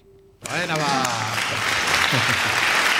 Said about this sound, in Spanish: Muchas gracias, muchas gracias. Y sobre todo aplausos, ¿eh? que es lo más importante, ¿verdad? Sí, de eso vivimos.